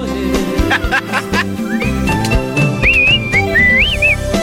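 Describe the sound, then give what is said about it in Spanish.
A person whistles a short, warbling melody with rising and falling pitch bends, clear, over a busy background with some laughter and chatter mixed in. “sabes qué hizo el chiflido, eras, no?”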